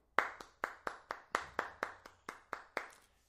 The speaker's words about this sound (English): I personally would like to give you a clap.